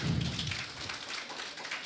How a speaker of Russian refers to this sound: Давайте поприветствуем друг друга. Еще раз, пожалуйста, аплодисменты.